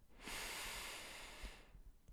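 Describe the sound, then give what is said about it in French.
A slow, steady breath drawn in through the nose for two seconds during a belly-breathing exercise, a soft airy hiss, quiet, with no one speaking. “Inspire par le nez pendant deux secondes”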